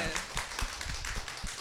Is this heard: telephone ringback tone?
no